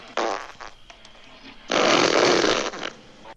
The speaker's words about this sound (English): This is a classic fart. I'll call it.